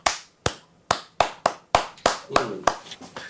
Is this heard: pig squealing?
no